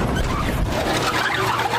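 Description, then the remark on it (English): A car thuds over a speed bump as its muffler scrapes and grinds loudly along the pavement, a harsh, continuous metallic rasp with no voices. “And if you have cut rate car insurance, the cost to reattach your muffler could really be a bump in the road.”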